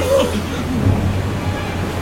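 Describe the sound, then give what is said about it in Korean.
Stormy waves and gusting wind on a lake, around a boat crossing it, roar steadily for a couple of seconds, a dense, rumbling wash of noise with a faint voice-like tone briefly rising at the start. “파도와 바람을 감당할 수 없어.”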